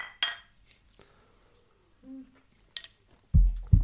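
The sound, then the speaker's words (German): Glasses clink together in a toast, a bright tap near the start and a lighter one later, followed by soft low thumps as they are set down. “aber vorher wollte ich nochmal mit dir anstoßen. Cheers.”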